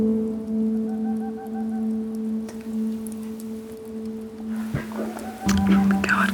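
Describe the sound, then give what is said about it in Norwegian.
A boreal owl sitting in a tree right outside a house gives a faint, rapid run of soft repeated notes, set against a steady low hum and a rain-like hiss. “lyden av ei perleugle som sitter i et tre rett utenfor huset.”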